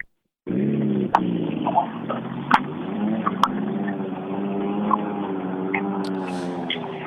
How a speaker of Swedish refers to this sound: Ja, vi ska släppa iväg lite bilar här.